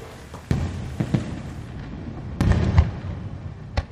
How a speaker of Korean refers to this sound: 공장 밖에서 다시 불꽃 터지는 소리가 들렸다. 팡! 팡! 불꽃은 경쾌하면서도 터지는 소리가 묵직했다.